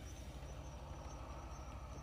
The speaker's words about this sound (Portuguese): Tá passando um carro aqui.